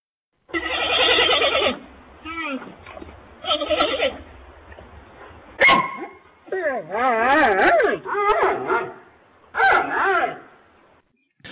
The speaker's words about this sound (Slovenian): Zadnjič smo spustili ta zvok in to je bilo oglašanje črno-bele pandeje.